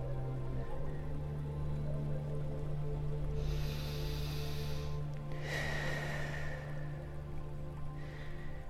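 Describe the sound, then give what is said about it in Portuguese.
Slow, deep breaths blown out through the mouth in a breathing exercise, two long airy exhales and the start of a third, fairly loud over a low, steady humming drone. “Inspira grande, soltando o ar pela boca por três vezes.”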